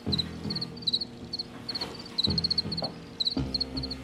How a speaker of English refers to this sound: I read about um, like a long-standing colony of crickets in the Paris metro that people feel very fondly towards, and there was an organization that was even lobbying the city of Paris to declare this one metro stop uh, national park.